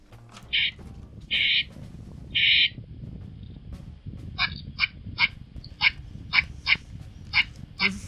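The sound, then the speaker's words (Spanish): A squirrel call: three drawn-out, high chirps followed by a quicker series of about eight short, sharp squeaks. Clear, heard over a low background rumble with no talking. “Bueno, ese es un uno de los tantos sonidos que emite la, ardilla.”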